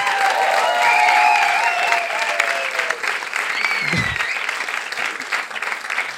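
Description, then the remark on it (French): Sustained applause from a sizable audience welcoming four spectators who have joined the performers on stage, loud and dense throughout, with a few whistles and cheers rising over the clapping; no speech. “Tonnerre d'applaudissements.”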